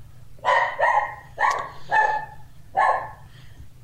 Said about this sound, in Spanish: Esa es una de mis perritas, que estoy seguro que me está diciendo te quiero.